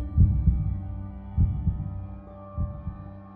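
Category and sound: sound effect, thumping heartbeat sound effect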